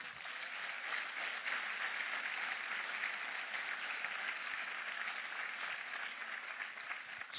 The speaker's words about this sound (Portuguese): Pode aplaudir o Senhor.